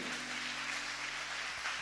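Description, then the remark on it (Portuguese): An audience applauds the Lord after a prayer: a dense, steady wash of many hands clapping together, sustained throughout with no voices on top, over a faint low electrical hum. “Pode aplaudir o Senhor, amém?”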